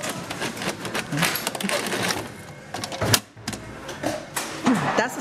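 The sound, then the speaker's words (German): Continuous mechanical clatter and whirring of machines sorting, counting and rolling coins in the coin area of a cash processing centre, with dense metallic jingling and rapid clicks, a brief sharp clack near the middle, and a busy, steady industrial hum throughout. “Alleine jede Woche rollieren und äh, zählen wir ungefähr 45.000 Rollen.”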